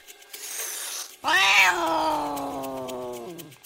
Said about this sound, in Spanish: No, eso es un gato, no un perro.